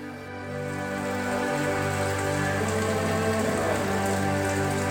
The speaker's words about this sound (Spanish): En Cuba llueve, normalmente llueve poco. Pero en estos momentos lloviendo, aquí mis hijos estuvieran en el aguacero.